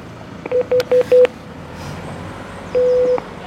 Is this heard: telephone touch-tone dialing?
yes